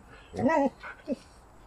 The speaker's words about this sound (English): Hush, dog.